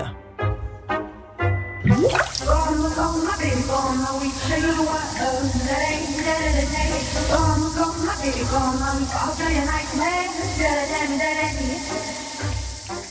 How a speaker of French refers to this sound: Dans la salle de bain, il s'agit d'une chanteuse qui chante sous sa douche.